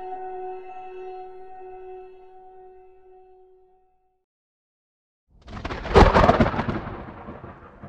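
A low sustained musical tone fades to silence, then a loud thunderclap from a coming storm bursts in with a sharp crack and rolls on in a heavy, crackling rumble.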